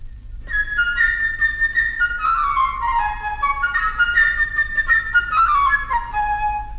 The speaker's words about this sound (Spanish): Por ejemplo, el pajarito, amigo de Pedrito, será la flauta ligera y revoltosa.